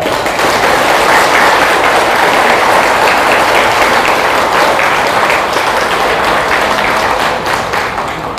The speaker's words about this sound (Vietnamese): nếu à, làm được việc đó thì quý vị hãy cam kết bằng một tràng vỗ tay thật lớn